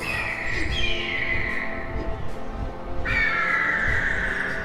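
Eagles calling: two long, loud, harsh cries that slide slightly downward, one early and one after a pause, over a low rumbling background.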